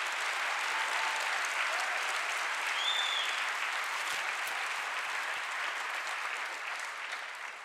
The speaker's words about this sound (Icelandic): Og nú, já, klappið fyrir því ég hefði bara viljið.